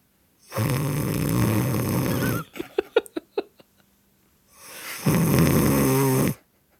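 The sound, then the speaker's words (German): Someone asleep in a cinema audience snores loudly during a brief dramatic pause in a very loud film: two long rasping, rumbling inhalations separated by a brief stretch of quick, irregular clicking and smacking sounds. “Irgendwer komplett weggepennt bei einem Film, der die Dezibelskala gesprengt hat.”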